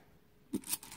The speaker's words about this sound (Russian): Э, после поставьте рядом с фортуной вот, вот этот горшочек с монетами. Каждый день постарайтесь не забыть. Подходите – вот так поднимаете монеты, так кидайте и говорите.